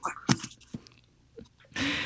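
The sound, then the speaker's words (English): Mouth sounds of someone sipping a drink: a few soft wet clicks and gulps, then a brief airy slurp at the end. Quiet, with no talking. “Let me just sip”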